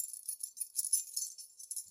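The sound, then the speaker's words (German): Keys jangle and clink together in a quick, continuous shimmer of bright metallic jingles, fairly quiet, with no voices. “Der Schlüssel. Er verschließt, was wir schützen wollen und gibt uns ein Gefühl der Sicherheit.”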